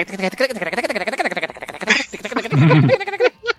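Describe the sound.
A voice mimics fast slap bass playing with rapid, rhythmic percussive syllables, bouncing pitch up and down in a quick run before ending with a few sharper, louder bursts.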